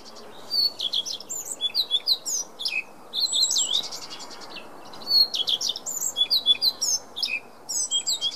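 A Eurasian blackcap sings a rich, fluty warbling song in repeated bright phrases with short pauses, clear over a soft background hiss, with no voices.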